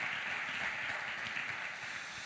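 Steady, dense applause from an audience welcoming a guest being introduced fills the whole stretch, a thick wash of many hands clapping at once, fairly loud and without any talking over it.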